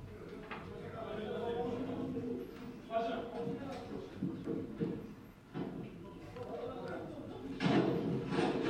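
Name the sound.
police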